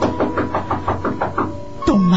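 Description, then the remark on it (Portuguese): A quick, steady run of about nine firm knocks on the door of a house, fairly loud, followed by a short low drawn-out sound at the end. “Minutos depois, batiam a porta da casa”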